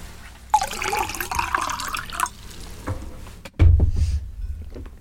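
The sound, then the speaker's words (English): Water pours steadily into a glass for about two seconds, fairly loud, followed by a few drips and a dull low thump as something is set down. “Some water. You got water.”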